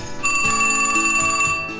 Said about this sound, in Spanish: Le pedí que me vuelva a llamar a las 6 de la tarde. Dijo que no podía, pero a las 6 en punto sonó el teléfono.